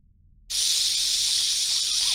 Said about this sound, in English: there's no other noise coming out of the cryo bay except for you can hear the hiss of what looks like coolant that is blasting this cold, cloudy air in through the the ceiling